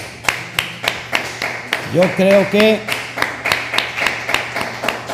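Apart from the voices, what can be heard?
audience applauding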